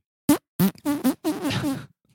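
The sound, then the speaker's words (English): A voice mimics a dog passing gas while walking: a few short, buzzy sputters followed by a longer drawn-out raspberry, fairly loud, with no words spoken. “Um, usually they're silent, but like occasionally, like the dogs will like walk around and fart while they walk because they have no decorum, and like they'll just walk by and you'll hear like a”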